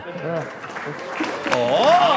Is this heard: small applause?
yes